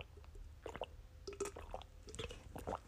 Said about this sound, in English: And I and I have to take a water break, you know, and drink water. Not something alcoholic.